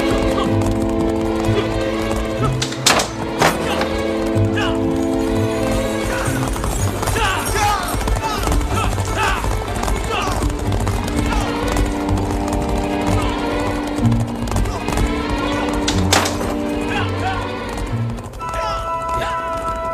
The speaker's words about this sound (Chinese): 刚才王凯率数十名黑袍武士骑马出府，奔北门而去。